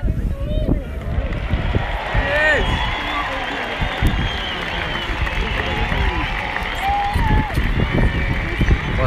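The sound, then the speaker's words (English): A large outdoor golf crowd roars and cheers for Shane Lowry in a sustained, dense wave of many voices, with scattered clapping mixed into the steady din throughout. “Okay, I'm, I'm pretty sure the very next sound you'll hear will be a massive cheer for Shane Lowry.”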